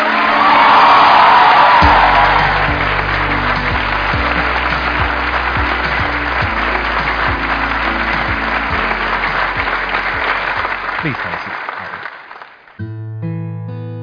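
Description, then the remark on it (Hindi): A crowd breaks into loud, sustained applause with cheers and whoops over an upbeat music track as the audience welcomes guest Ghazal Alagh of the unicorn company Mamaearth. The clapping fades out after about twelve seconds while the music plays on alone. “आज जो हमारे गेस्ट हैं यहाँ पर पीछे बैक स्टेज पर उनकी अपनी एक यूनिकॉर्न कंपनी है मामा अर्थ के नाम से please gave an energetic and warm welcome to the one and only गजल अलग”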